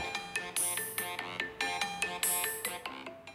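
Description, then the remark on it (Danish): A phone ringtone plays a bright, repeating electronic melody of quick tonal notes, loud, with no voices over it. “Nå, nu ringer”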